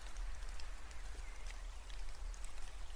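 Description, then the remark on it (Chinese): Steady rain falls without pause, a soft, even hiss spread across the upper range with scattered light drop ticks and a low rumbling undertone. No one speaks. “不希望你回去，所以下雨了，就是这样的意思。”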